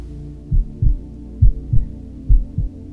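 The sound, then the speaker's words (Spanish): A steady, deep heartbeat thuds in paired lub-dub beats, three cycles in under three seconds, low and muffled over a faint hum, with no voices. “Ahí en ese momento hay quietud, escuchando el sonido del corazón que tenemos en el fondo.”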